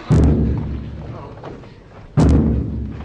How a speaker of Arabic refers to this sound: دق دق دق يحاول تقليد صوت الطبول التي نستمع